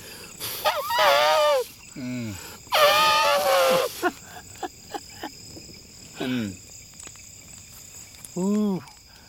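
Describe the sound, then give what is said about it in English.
A voice imitates an elephant's trumpet in two long, loud, wavering bursts, followed by a few shorter rising-and-falling vocal hoots, with faint insect-like buzzing and clicks in the background. “An elephant is like.”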